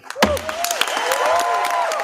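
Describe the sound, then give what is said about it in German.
At an environment assembly, a crowd breaks into dense, continuous applause as the chair announces a resolution against waste worldwide adopted without objections, sharp claps overlapping steadily, while rising and falling voices cheer and whoop over it, holding loud and lively for the whole stretch. “Ohne Gegenstimmen wurde die Resolution angenommen, verkündete der Vorsitzende unter Jubel.”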